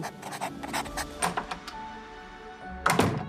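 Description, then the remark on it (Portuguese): A door opens in a short sound effect: a run of quick clicks and knocks, then a brief swell of rattling movement near the end, moderately loud, with no one speaking. “Tu tens um lápis de desenho uma porta lá para fora.”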